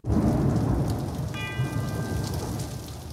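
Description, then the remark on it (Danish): Steady, heavy rain hisses throughout while deep thunder rumbles underneath in a 1970 recording; partway through, a single bell rings and its tone lingers over the storm. “De har klokken. Ja. De har regnværet og sådan noget, ikke?”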